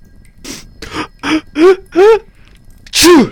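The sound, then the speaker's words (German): A loud sneeze: a few quick breathy inhales build into rising voiced "ah" sounds, then a sharp, forceful burst at the end. No talking. “Gesundheit.”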